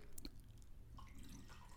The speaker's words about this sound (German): aber, das hört sich gerade an, als wenn wir auf dem Klo wären. Nein, ich habe mir nur einen frischen Kaffee eingegossen.